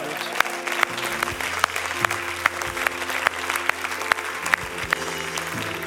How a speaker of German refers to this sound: Lass uns Gott doch einfach mal einen Applaus geben. Er ist so gut.